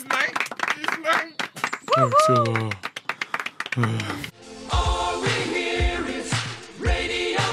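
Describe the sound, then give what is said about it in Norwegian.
An audience claps in a quick, dense patter for the owl, elk, bird and bee who have come forward, while a voice speaks over it, then the clapping gives way to a fuller, louder wash of sound. “Eh, altså, ja eh, Publikum, eh, en applaus til, eh, til ugle, elg, fugl og bie som har turt å stå fram her i dag.”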